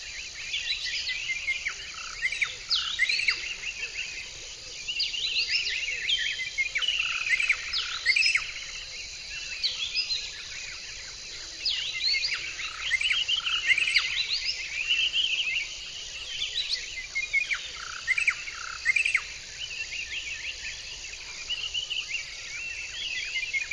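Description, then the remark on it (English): A dense outdoor soundscape in Southern Africa of constant insect buzzing and trilling, with many bird chirps and calls layered on top, steady throughout, with no voices. “It was interesting because of all the animal and bird species and insects that I encountered.”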